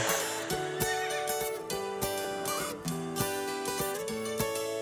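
A horse whinnies amid loud, rhythmic music with a steady pounding beat, the neigh partly buried in the busy mix.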